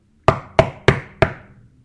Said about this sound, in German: In dem Augenblick wurde an die Tür geklopft.